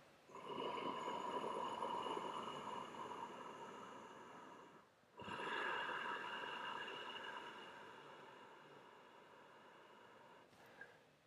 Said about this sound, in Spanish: respiración oceánica.